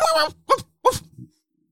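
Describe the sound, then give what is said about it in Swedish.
A voice imitates two dogs barking as visitors arrive at a house door: three quick, strained bark-like bursts, the first longer and the next two short and sharp, moderately loud, then a faint low mumble. “ni hör eh, nästan två hundar som jobbar när ni kommer fram, den som går fram till dörren liksom.”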